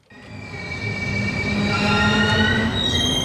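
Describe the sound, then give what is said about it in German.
A train from the east rolls into Zürich main station, its wheels squealing in high, sustained metallic tones over a steady low rumble that grows slightly louder as it arrives. No voices. “Viermal pro Tag fährt ein Zug aus Osten in den Zürcher Hauptbahnhof ein.”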